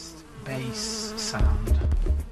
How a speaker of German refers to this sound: Mit einer speziellen Software isoliert er die unterschiedlichen Frequenzen der Bienen. Die Königin stößt ein hohes Pfeifen aus, die Arbeiterin bewegt sich im mittleren Frequenzbereich und die Drohne, die männliche Biene, hat den tiefsten Basston.